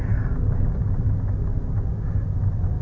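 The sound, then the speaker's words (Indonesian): A steady, fairly loud low rumble of a car engine as a car passes by outside, holding an even level for a few seconds with no voices over it. “apaan sih ini mobil kayak banget ya”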